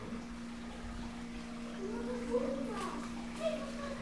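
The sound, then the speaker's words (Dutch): Faint children's voices rise and fall in the background of a butterfly house over a steady low hum, with a couple of brief higher-pitched calls toward the end. “De kinderen genieten. Je hoort hun stemmen op de achtergrond.”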